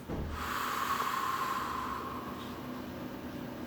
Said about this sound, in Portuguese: Respire profundamente pelo nariz e solte lentamente pela boca